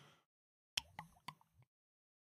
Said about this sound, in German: ich muss ja jetzt auch beschreiben, er hat gerade einen sehr großen Schluck Bier genommen einen so rein und hat dabei müssen. dieses Geräusch gemacht, mhm. dieses gluck gluck gluck